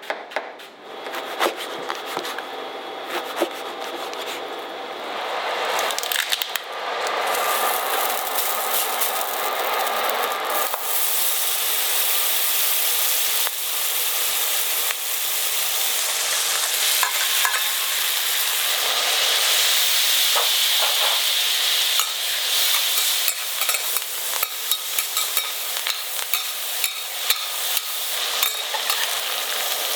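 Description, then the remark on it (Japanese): Sea urchin and watercress, a Hiroshima teppanyaki specialty, sizzle loudly on a griddle, a steady crackling hiss that swells after a few seconds and carries on without pause, with occasional scraping sounds and no voices. “今朝は広島鉄板焼き名物ウニクレソンのいい音”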